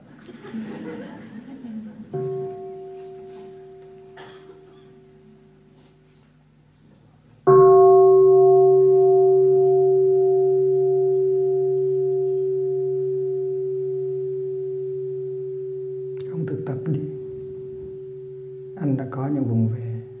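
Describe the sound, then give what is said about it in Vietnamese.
A Buddhist mindfulness bell is invited twice so the men present can practice: a soft first strike, then a loud, deep ring that hums and slowly fades over several seconds. Brief voices and light laughter come before and after. “con thỉnh cho thầy tiếng chuông để các ông thực tập”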